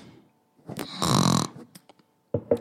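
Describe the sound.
A loud, rasping snore-like snort lasting about half a second, preceded by a short grunt and followed by a few faint clicks, then two brief nasal snorts at the end.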